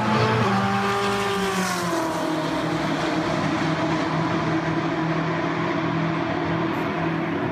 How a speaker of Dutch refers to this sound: Langzaam verdwijnt hij aan de einder de M8 GTE van BMW.